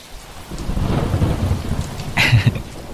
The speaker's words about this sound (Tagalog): Ayan, kulog na tuloy.